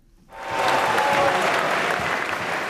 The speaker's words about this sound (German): Großer Jubel, vor allem im äußerst rechten Lager der AfD.